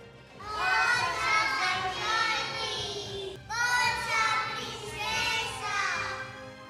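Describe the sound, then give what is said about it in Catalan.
A group of boys and girls cheer and shout encouragement together from a distance in a steady, excited chorus, pausing briefly about halfway before resuming with equal energy. “De lluny es van sentir els crits d'ànims dels nens i les nenes, que deien”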